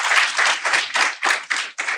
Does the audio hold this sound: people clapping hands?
yes